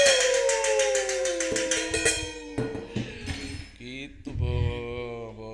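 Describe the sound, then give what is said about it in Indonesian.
A metal cooking pot is banged rapidly and loudly in a solidarity protest for a domestic workers' protection law, its bright ringing tones sustaining between quick, steady strikes that turn more irregular toward the end, with faint voices in the background. “kita solidaritas solidaritas pukul panci pukul panci untuk perlindungan pembantu undang-undang pembantu perlindungan undang-undang perlindungan pembantu rumah tangga pukul panci Woo!”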